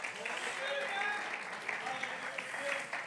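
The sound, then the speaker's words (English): An audience claps steadily in praise during an evening church service, a dense wash of many hands sustained throughout, with voices rising and calling out over the clapping. “Oh, clap your hands and praise Him with me tonight.”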